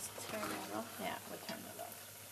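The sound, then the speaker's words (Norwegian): Steady sizzling hiss as golden fried potato cakes are lifted out of a hot iron pot, with soft scraping and murmured voices over the frying. “Potetkakene er på vei opp av jerngryta.”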